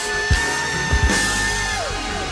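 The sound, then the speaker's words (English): An audience shouts and claps in a loud, sustained roar of triumph to God at a morning church service, with a few heavy thumps punching through and a steady held tone ringing underneath. “It's shouting to God with a voice of triumph.”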